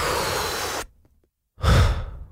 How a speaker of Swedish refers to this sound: Om man vill göra den, då gör man 30 andetag, precis så som jag demonstrerar nu. Fullt in, släpp ut.